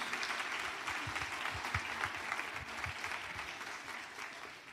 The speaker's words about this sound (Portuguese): Você pode aplaudir Obrigado, a presença de Jesus nesse lugar? Pode fazer isso.